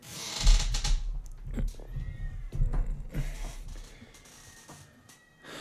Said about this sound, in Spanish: Pero mata, porque estoy escuchando un gato maullar, pero muy cabrón. Pero no suena que sea mi gato y no se le vayan a partir la madre. no, no es mi gato. Son dos gatos, pero no sé si. Están cogiendo. O se están peleando.